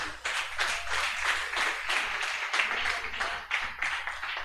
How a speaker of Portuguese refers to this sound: Aplauda ao Senhor.